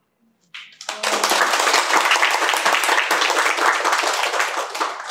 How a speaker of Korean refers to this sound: 절로 박수가 쳐지네요.